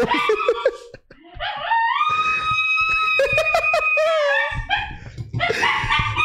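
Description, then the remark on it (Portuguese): A female dog howls in long, wavering, rising and falling tones that sound almost like singing opera, broken by a few shorter yelping cries, with faint laughter in the background. “Gente, minha cachorra canta ópera.”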